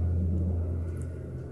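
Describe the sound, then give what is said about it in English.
A deep, steady engine roar from an airplane overhead, droning evenly and easing off slightly toward the end, with no voices. “So I like airplane sounds.”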